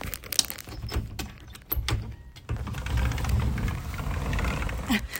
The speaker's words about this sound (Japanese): 続きまして窓を開ける音意外と普通だったじゃあこっち行きます窓を開ける音